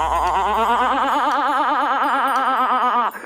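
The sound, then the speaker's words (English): A person's voice imitates a dolphin with a loud, wavering squeal that warbles rapidly up and down for about three seconds before cutting off. No words are spoken. “All right, now you sound like a dolphin”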